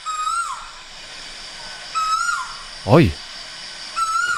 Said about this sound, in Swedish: Jag hade någon skum fågel.